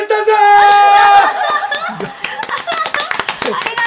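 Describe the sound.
A burst of quick, irregular hand clapping by a few people in a studio, sharp and fairly loud, following a stretch of voices and laughter at the start.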